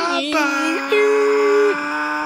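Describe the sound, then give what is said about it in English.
A voice imitates a racing car engine with a sustained, buzzing drone that rises and shifts pitch like gear changes, loud, with no other sounds. “Brum, brum, brum, no, no, brum.”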